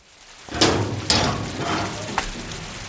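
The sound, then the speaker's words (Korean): Metallic clanks and rattles as a key unlocks a house's iron front gate and the gate is pulled open, three sharp impacts over a scraping, rumbling background, with no voices. It happens at night in the rain, in a narrow alley without streetlights, lit by a phone flashlight. “우산을 눌러 쓰고 철대문으로 다가가 휴대폰 후레쉬를 비추며 열쇠를 꺼내 대문을 열었다.”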